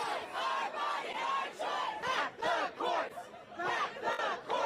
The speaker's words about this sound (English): This is people standing outside of the courthouse.